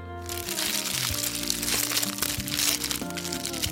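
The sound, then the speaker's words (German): Three fortune cookies are cracked open at once on a count of three, producing a dense, continuous run of crunching and crinkling for a few seconds over a steady tonal background. “Die machen wir jetzt gleichzeitig auf drei auf, okay?”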